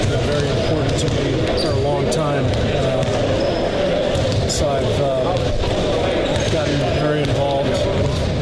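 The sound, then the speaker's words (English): Basketballs bounce repeatedly in a busy gym during a USA Basketball practice, the steady thumping of many balls overlapping with a reverberant hum and indistinct voices talking in the background. “Uh, so, so as you could hear, and it's a little hard to hear because it was at a uh, USA basketball practice,”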